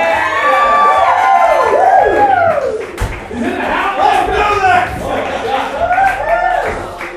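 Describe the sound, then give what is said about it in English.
A crowd cheers and whoops loudly for about seven seconds as Mr. Benjamin Franklin is introduced, many voices rising and falling in overlapping shouts, with some scattered clapping mixed in under the steady roar. “Let's give a big round of applause to, to Mr. Benjamin Franklin.”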